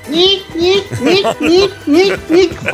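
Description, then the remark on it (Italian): A child's voice imitates a sawfish with a run of rhythmic back-and-forth sawing vocal bursts, about six strokes in quick succession, fairly loud. “Sentiamo l'imitazione, dei Pesci, allora, eh. pesce eh. Sega.”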